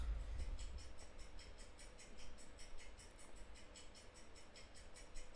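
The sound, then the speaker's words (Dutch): A loud clock ticks steadily and evenly, several quick ticks each second, over a low background hum, with no one speaking. “Girl, deze klok is echt luid.”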